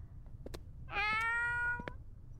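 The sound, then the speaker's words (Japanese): A single drawn-out meow from a black cat, clear and fairly loud, lasting about a second with a slightly rising then steady pitch, set against faint background noise and a few soft clicks. “見ろよ黒猫黒猫見たら良くないことが起こるって言うだろ”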